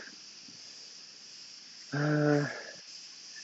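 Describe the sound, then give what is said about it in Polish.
Crickets chirp in a steady, unbroken high-pitched trill that runs the whole time, recorded on a shore, with a brief vocal sound from a person partway through. “ten dźwięk, który słyszycie, to są chyba świerszcze.”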